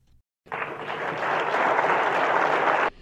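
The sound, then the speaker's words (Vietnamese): Sustained applause from delegates in the hall of the National Convention Center, My Dinh, Hanoi, as the Global Conference of Young Parliamentarians adopts its declaration, a dense, steady wash of clapping that swells slightly and then cuts off abruptly after about two and a half seconds. “Những tràng vỗ tay không dứt của các đại biểu tại khán phòng Trung tâm Hội nghị Quốc gia Mỹ Đình Hà Nội khi hội nghị thông qua tuyên bố hội nghị về vai trò của giới trẻ trong việc thúc đẩy thực hiện các mục tiêu phát triển bền vững”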